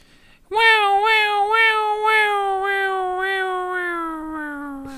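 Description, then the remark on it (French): A person vocally imitates a fire engine siren with one long, loud, sustained wail that wavers rhythmically and slowly drops in pitch, as though the vehicle were driving away. No other voices or sounds accompany it. “tu nous fais un bruitage de sirène en live”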